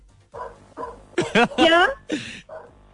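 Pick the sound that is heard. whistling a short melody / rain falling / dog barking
dog barking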